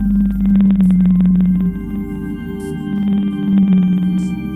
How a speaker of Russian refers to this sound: А это песня синего кита, записанная на западе Тихого океана.